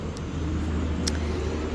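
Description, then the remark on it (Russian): A low-flying helicopter drones overhead, a steady, heavy low-pitched rumble that holds at an even loudness throughout, with a couple of faint brief clicks and no voices. “Господи, как же низко летит вертолет, а?”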